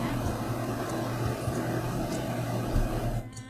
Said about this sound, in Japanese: エアコンが鳴ってると思います。まあいいか。一応ノイズ削るようにしてますけど、まあそんな感じで。